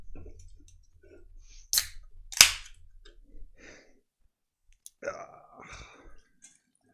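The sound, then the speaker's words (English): A Tom Collins cocktail (gin, lemon, simple syrup, sparkling water) is stirred with ice in a large martini glass: two sharp, bright clinks close together, then a few faint ticks and a short low murmur of a voice. “That little stir.”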